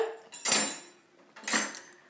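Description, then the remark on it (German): Two sharp clattering bursts of dishes and cutlery being cleared away after a meal, in the evening in Switzerland, with a quiet pause between them and no talking. “Zuerst muss ich noch mein Geschirr abräumen, weil ich gerade gegessen habe.”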